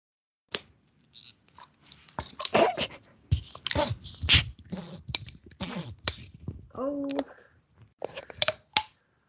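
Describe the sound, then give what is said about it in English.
A soda bottle of a regular, unflavored kind is twisted open, giving a string of short, irregular sputtering and crackling bursts rather than a steady fizz, with a brief voiced sound near the end. “There was like no fizz, but weird like little fart noises.”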